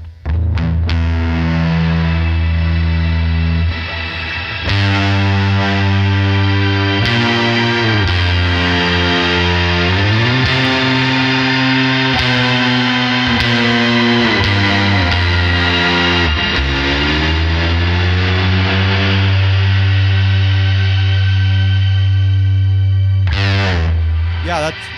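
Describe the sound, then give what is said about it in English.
A loud, fuzzy electric guitar plays thick sustained chords with sliding bends through a shimmer reverb that keeps the dry signal and the shimmer in a separate mix and lets the fuzz through, bright and shimmering, lingering and swelling for the whole stretch, with no talking. “completely lets the fuzz through. So it's like anything you're doing with your drive is just going to come through without no problem.”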